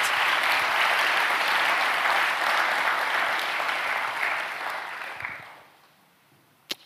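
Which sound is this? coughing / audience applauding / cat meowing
audience applauding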